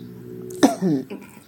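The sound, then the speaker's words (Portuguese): A small cough: one short burst with a throaty, voiced tail, followed by a faint second catch, at moderate loudness with no talking. “Tô dando uma tossidinha aí.”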